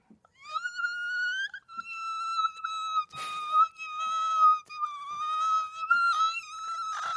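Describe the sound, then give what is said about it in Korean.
A voice imitates a mosquito in a high frequency meant to keep mosquitoes away, with a sustained, high, nasal whine that wavers slightly in pitch, broken by a few short pauses and a brief breathy burst partway through. “모기가 싫어하는 그 고주파나 음. 저주파로 해줘야죠.”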